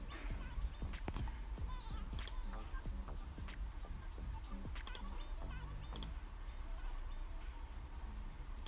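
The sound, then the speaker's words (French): Crisp computer keyboard presses of the control key and mouse clicks tap out at an irregular pace to select several photos, with a few sharper, louder clicks standing out over a steady low background hum. “Vous voyez, tac, tac, touche contrôle du clavier.”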